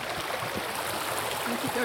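A rushing stream rapid tumbles over stones as people cross the stones, in a steady, dense hiss of water, fairly loud throughout, with a faint voice briefly audible beneath it near the end.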